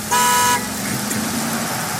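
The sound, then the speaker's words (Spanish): A short, loud car horn blast of about half a second, followed by the steady rumble of a car passing by on Abbey Road, outside the Abbey Road recording studios. “Hoy aguas con el carro.”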